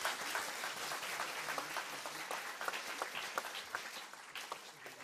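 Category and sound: crowd, audience applause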